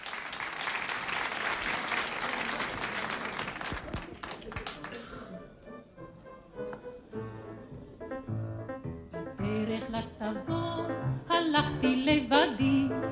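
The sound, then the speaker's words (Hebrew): An audience bursts into loud, sustained applause for several seconds, then the clapping fades as instrumental music begins and a singing voice comes in. “והיא תשאיר את זה לפנינו, ואנחנו נקבל בתשואות”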